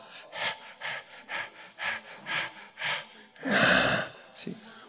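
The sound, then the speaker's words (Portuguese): A voice imitates heavy breathing: a steady run of about seven short, rhythmic breathy puffs, then one long, loud forceful huff and a brief final puff. “Aí, sente assim um bafo assim, ó.”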